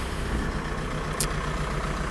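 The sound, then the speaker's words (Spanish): A vehicle engine rumbles steadily at a low idle as it pulls into a garage, a constant deep drone with one brief, sharp high hiss partway through. “este va a entrar aquí la cochera.”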